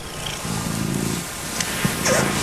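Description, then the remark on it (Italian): A cat purring, a low, steady rumbling drone that swells and continues through the moment, with a few faint clicks and rustles over the top. “Eh, il gatto, il gatto ti rilassa.”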